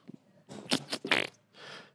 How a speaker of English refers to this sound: You got big old Cheeto farts